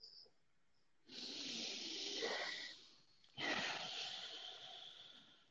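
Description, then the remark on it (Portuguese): Two long, deep breaths taken to close a live stream, a slow airy inhale-exhale starting around one second and another after a brief pause, with no talking. “Bom, vamos finalizar essa live, então, respirando fundo, que acho que é o que precisamos para esse momento?”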